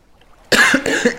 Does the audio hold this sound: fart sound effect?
no